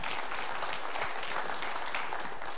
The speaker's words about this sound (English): Yeah, clap if you want to clap.